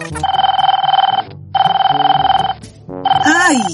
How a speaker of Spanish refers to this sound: Ese celular suena muy parecido al mío. ¿Por qué traen todos el mismo tono?